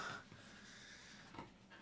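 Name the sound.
dog snorting and breathing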